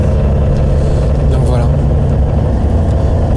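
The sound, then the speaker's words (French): A steady, loud low engine rumble from inside a moving bus heading to a swimming pool, with a constant droning hum and faint rattles throughout. “Puis là, donc direction, je suis dans le bus, Ils à la piscine.”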